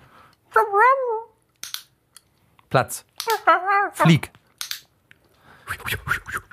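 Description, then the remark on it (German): Sharp, crisp clicks from a small rubber handheld animal-training clicker with a shackle hook for attaching to trousers sound several times at irregular intervals, between short spoken commands from a voice. “Nee, wo man so Tiere abrichtet mit einem Klicker, weißt du so.”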